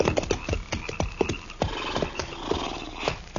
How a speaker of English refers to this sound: All right. Hold it. Uh, Pull up them horses.